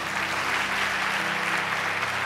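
Steady, dense applause from a crowd at a religious gathering, given to first-time visitors, fills the whole stretch, a broad wash of many hands clapping at even loudness without pause, with no voices standing out.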